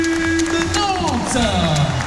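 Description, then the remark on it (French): A large arena crowd of about 4,700 spectators at the Salle de la Trocardière in Nantes cheers and applauds the Neptunes de Nantes, a dense wall of overlapping voices with rising shouts and a sustained tone, loud and continuous throughout. “Ils en finale, applaudissements aux Neptunes”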